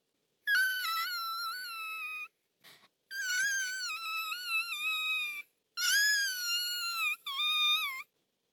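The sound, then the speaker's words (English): A voice imitates a locust crying with high, thin, quavering wails, four long drawn-out sobs separated by short breaths, fairly loud with no other sounds. “When the poor locust saw there was no clouds in the sky, and no rain was going to come, she began to cry.”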